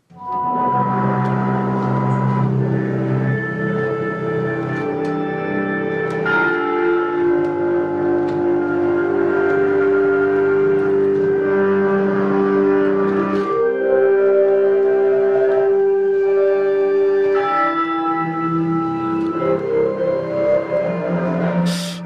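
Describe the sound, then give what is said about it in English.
Organ music plays steadily for about twenty seconds: sustained, buzzy chords held at an even loudness, shifting to new harmonies every few seconds, with no voices. “This is a Pringles organ.”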